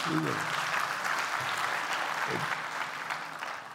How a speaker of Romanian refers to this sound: Așa, aplaudați.